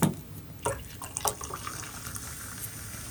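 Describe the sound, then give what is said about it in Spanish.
A drink is poured into a small glass: a few sharp splashy clinks at the start give way to a steady, quiet gurgling trickle of liquid, with no one talking. “Con un vasito servido”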